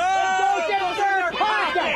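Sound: crowd yelling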